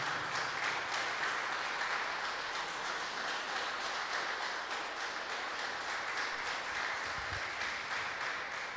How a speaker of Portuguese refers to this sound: Pode se assentar, aplauda ao Senhor enquanto você se assenta em nome de Jesus.